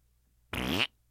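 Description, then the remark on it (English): A single loud, buzzy raspberry blown from the lower right part of the mouth, imitating a fart, lasting about a third of a second, with no talking. “They love it when I do this fart that comes out of like the lower right part of my mouth”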